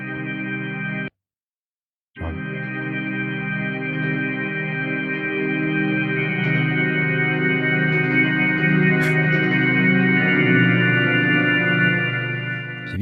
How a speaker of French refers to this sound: ce truc, c'est pas plutôt la saturation de l'effet, il y a de la reverb derrière là. On dirait euh, une distorsion euh, numérique ou un truc comme ça.